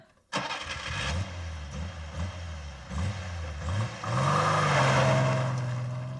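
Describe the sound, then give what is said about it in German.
An old-fashioned petrol car with gearshift and gearbox starts abruptly and revs hard at full throttle in several rising bursts, then climbs into a sustained, loud high-revving roar near the end. Strong, with no voices. “Dort werden nostalgische Automobilisten und Hubraum for Future Melancholiker in altmodischen Benzinkutschen mit Gangschaltung und Getriebe ihren Schmerz über die tempolimitierte Gegenwart ausleben, indem sie Vollgas geben.”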